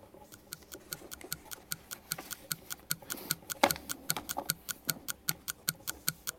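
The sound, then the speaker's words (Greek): A quiz timer clock ticks steadily, crisp evenly spaced clicks at a brisk pace of roughly three per second, clear over faint background noise, with no one speaking. “Βάλτε το ρολόι”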